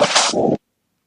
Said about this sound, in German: entschuldige, jetzt ist mir mein Mikro runtergefallen